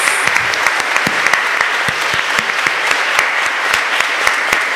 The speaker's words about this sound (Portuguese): Vamos aplaudir a palavra de Deus, meus amados.